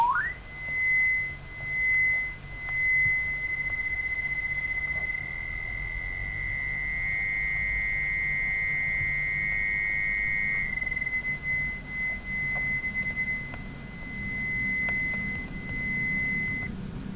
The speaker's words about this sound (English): A binaural beat sounds like this.